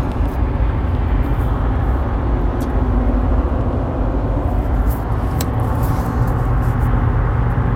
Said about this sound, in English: Sorry, this truck is jamming on me.